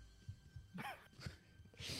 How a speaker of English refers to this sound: God bless you